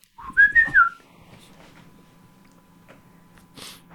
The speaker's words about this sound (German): Dann hauen wir mal nochmal den Jingle raus und dann äh, hören wir uns gleich wieder.